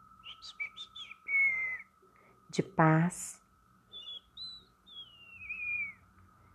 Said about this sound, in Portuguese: Os pássaros levavam mensagens em suas canções de afeto,